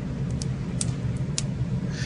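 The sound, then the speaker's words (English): Broken pieces of a 20-year-old tempered glass pane pop and tick in a handful of sharp, irregular snaps over about two seconds, ten minutes after the glass shattered, set against a steady low background hum with no one speaking. “The sound you're hearing now is the broken glass popping 10 minutes after the original explosion.”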